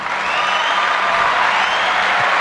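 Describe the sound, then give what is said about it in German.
Steady, dense applause from a crowd, a continuous wash of many hands clapping at an even, loud level for a couple of seconds with no pauses. “Aber lass dich doch nicht ständig ja unterbrechen. Mit dem Applaus.”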